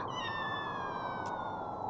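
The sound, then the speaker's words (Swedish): A kitten, curled up in a small ball beside a tree in the snow, half covered in snow and shaking with cold, gives one long, high, drawn-out meow that slowly falls in pitch, clear over a steady background hiss. “Bredvid trädet, ihopkurad till en liten boll, låg en liten kattunge och ingen kattmamma var inom synhåll.”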